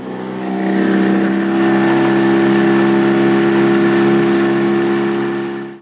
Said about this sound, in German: Wir fahren jetzt nach Filme, einmal zur Sandbank und zurück. Und wir geben Gas.